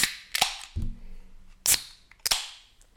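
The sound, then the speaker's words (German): A beer can being opened: a few sharp metallic snaps and cracks, each followed by a short fizzing hiss, with a brief low rumble between them and no talking. “Und heute gibt es, du darfst selber, gerne selber öffnen, ein Dosenbier mal wieder.”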